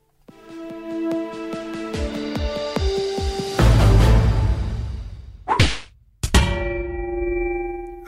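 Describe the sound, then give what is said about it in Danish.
A short produced Radio 4 jingle introducing the Danish radio programme's regular segment "de blå mærker": bright, ringing tonal hits and chimes, punctuated by whip-like cracks and a rushing whoosh, ending on a sustained ringing chord. Loud, with no voices. “som jinglen indikerede, så er det tid til vores faste indslag i programmet, nemlig de blå mærker”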